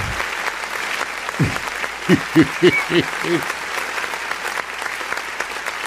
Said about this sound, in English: All right. So, oh, claps.